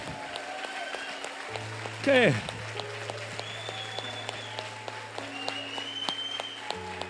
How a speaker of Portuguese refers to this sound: Dá um forte aplauso para o teu rei